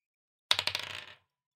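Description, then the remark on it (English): Dice clatter across a hard tabletop in a quick burst of bouncing clicks that tumble faster and fade out within about a second. The sound is crisp, with no talking. “We are doubling the dice that is being rolled.”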